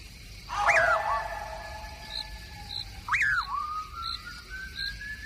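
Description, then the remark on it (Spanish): An eerie, piercing whistle rises and swoops twice, each call trailing into a long, thin sustained tone, following a man walking along a dark road at night, with dogs' howl-like wavering beneath and faint, evenly spaced high chirps in the night background. “Un raro silbido penetrador y espeluznante comienza a dejarse oír tras los pasos de Juan Hilario.”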